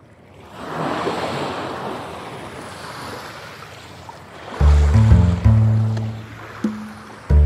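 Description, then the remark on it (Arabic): Water surges and crashes against small, remote, barren, frozen islands in a steady, hissing wash of surf for several seconds, then deep, sustained low tones swell in loudly over it. “صوت الماء المرتطم بجزر بعيدة ونائية قاحلة ومتجمدة صغيرة ومتناهية الصغر أقل بكثير من صوت النزاع الدولي عليها”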